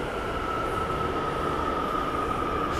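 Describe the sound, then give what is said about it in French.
Trains rumble past, a continuous loud roar of rail noise with a steady high-pitched whine running through it and no voices. “Oh là là, il y a des trains qui passent.”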